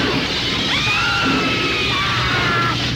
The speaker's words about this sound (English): Screaming midwives were running in panic.